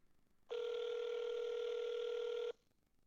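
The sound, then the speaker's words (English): A single two-second burst of the ringing tone of an outgoing phone call to a manager, a steady electronic hum with a slight buzz, then quiet. No voices. “I need you to answer the phone.”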